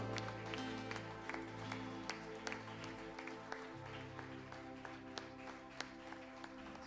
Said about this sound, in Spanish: ¿Cuántos le dan un aplauso al Señor?